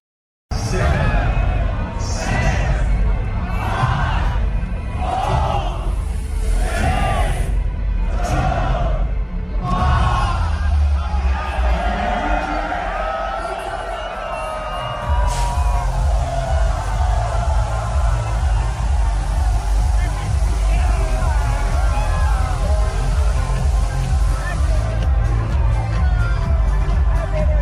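A loud, dense New Year's Eve crowd of a great many people, a few hours before the countdown, roars and shouts in rhythmic bursts at first, then settles into a continuous wall of cheering and babble that swells again near the end.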